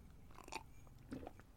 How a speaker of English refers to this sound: Question number one slurp of tea.